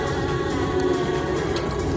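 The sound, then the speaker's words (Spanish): Steady, dense spray of water hissing and pattering against dishes inside a dishwasher, shot up from the bottom with a little more force, a continuous even wash with no pauses and a low rumbling undertone, with no one speaking. “Hoy, hoy, hoy dispara más agua, digamos así, desde la parte de abajo, en la lavadora, con un poquitito más de fuerza.”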